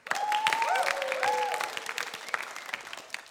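A crowd applauds steadily, dense clapping that holds strong for about two seconds, then thins out and fades. A few faint whoops or cheers ride over the clapping.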